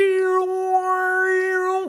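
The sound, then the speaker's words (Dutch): A single sustained sung note holds a steady pitch while its timbre shifts, the overtones brightening and fading as the mouth shape changes. Clear and alone, with no talking. “En die toon die kan ik manipuleren met mijn mond.”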